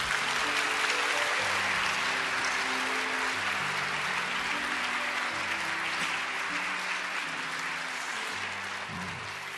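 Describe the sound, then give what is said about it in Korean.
An audience claps steadily to welcome a speaker, a dense, continuous patter of applause that holds for about ten seconds and eases off slightly toward the end, with no voices over it. “우리 박수로 환영합니다.”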